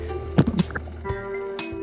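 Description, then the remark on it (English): Hooves of horses down below clomp in a short burst of a few hollow knocks, then another lone thud, all over a steady low hum with no voices. “First, the clomping of hoofs and”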